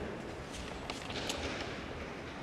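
A dense, steady patter of many small children's footsteps at St. Mary's School, a continuous clatter that almost resembles applause, moderately loud and filling the space with no one speaking.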